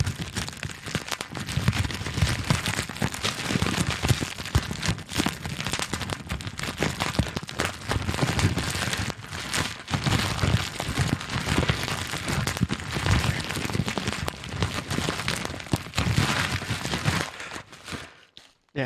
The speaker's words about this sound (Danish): Bobleplast!